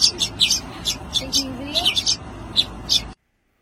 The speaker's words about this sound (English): you know, the little birds, they all, they all, he whistles. And then all the little birds, they pop up their heads and they start begging for food.